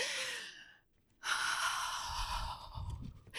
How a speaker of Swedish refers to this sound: börjar göra andningsövningar.